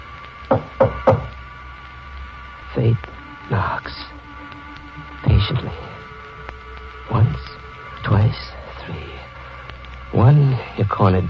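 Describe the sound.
Three quick, sharp knocks on a door near the start, evenly spaced, followed by a stretch of drawn-out, voice-like tones with brief pauses between them.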